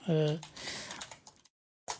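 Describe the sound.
A short voiced sound at the start gives way to a quick run of computer keyboard typing done live, soft clicks tumbling together, then a pause and one last brief burst of keystrokes.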